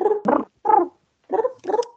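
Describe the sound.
A person's voice imitates a pigeon's cooing with a run of throaty, warbling coos, about five short bursts in two seconds, fairly loud with brief gaps between them.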